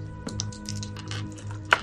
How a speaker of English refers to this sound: And uh, you get advantage on this one, which means you roll the two tens dice and you pick the lower one.